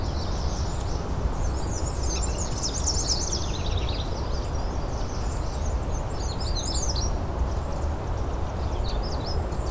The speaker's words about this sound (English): There's the ruby crowned kinglet.